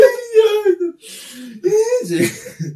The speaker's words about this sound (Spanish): Niños llorando en el estudio.